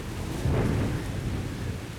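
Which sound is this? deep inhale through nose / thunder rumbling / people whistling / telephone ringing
thunder rumbling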